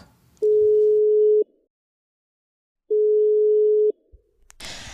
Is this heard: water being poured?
no